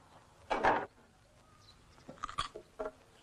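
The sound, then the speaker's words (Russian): A loud, crunchy bite of raw carrot, followed by a few quieter, irregular crunching chews with short pauses between them. “морковки хочешь? Тогда сама съем.”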